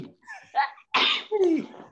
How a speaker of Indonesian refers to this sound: Tadi kayaknya masuk musim salju ya, jadi bersin-bersin.